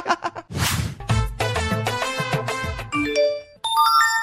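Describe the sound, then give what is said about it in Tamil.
A rapid string of electronic message notification chimes from a mobile phone, one after another with short melodic beeps and tones, loud, with no voices. “என்ன மெசேஜ் மேல் மெசேஜ் வருது மெசேஜ் வந்துட்டு இருக்கு மொபைல் தூக்கி போட்டு உடைச்சு போடணும் டேய் சரி தம்பி என்ன இது இப்படியே சரமாரி மெசேஜ் வந்துட்டு இருக்கு”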